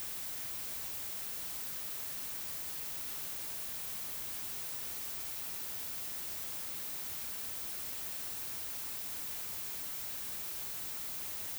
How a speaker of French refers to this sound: Remue ta main de haut en bas, comme si tu voulais lui donner une caresse. Remue doucement tes doigts et écoute comment le bruit blanc répond.